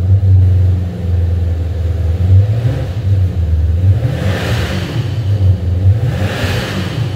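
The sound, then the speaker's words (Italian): A turbocharged car engine rumbles at a steady minimum idle of about 1500 rpm, then gets blipped in three short revs whose pitch swoops up and falls back, with a faint airy whoosh after the later ones. “sono le turbine incazzose ma la sto facendo girare al minimo eh.”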